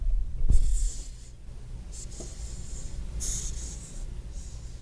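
A cockroach hisses by pushing air out of its spiracles: a series of breathy hisses, about three airy bursts in a row, fairly soft, like air rushing out, with faint handling rumble underneath and no talking.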